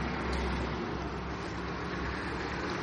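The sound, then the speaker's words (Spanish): Steady outdoor traffic rumble fills the scene, a continuous wash of car and engine noise from a road with no single vehicle standing out, heard at the north face of an old protected building, and nobody speaking. “Aquí podéis escuchar, estamos ya en la cara norte, cara norte. Y cómo el ruido ambiental, los coches, toda la civilización crece en torno, en torno a la construcción.”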